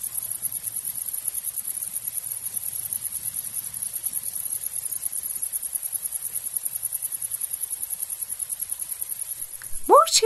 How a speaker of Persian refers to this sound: جیرجیرک فکر کرد و گفت خب منم بلدم بخونم گوش کن بعد هم شروع کرد به جیر جیر کردن